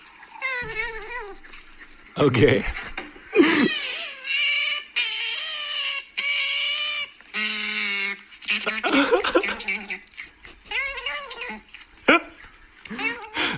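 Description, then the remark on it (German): Otters squeal in a rapid series of shrill, whiny, high-pitched calls, loud, rising and falling in pitch, with a brief spoken word near the end. “Hier ist, wie ein Otter klingt.”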